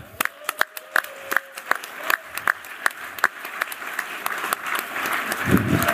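Audience applause starts as a few scattered, distinct claps and gradually thickens into steadier, fuller clapping from a moderately sized crowd, heard at a slight distance.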